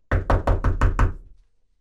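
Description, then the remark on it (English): Six firm, rapid knocks on a door, evenly spaced, with a dull wooden thud, followed by silence. “It was someone knocking on the door.”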